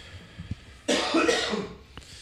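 A single harsh cough from a tickle in the throat bursts out after a quiet moment, rasping for about a second before fading, followed by a faint click and a short throaty catch.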